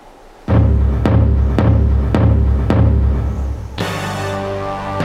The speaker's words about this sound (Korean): 북을 울려라.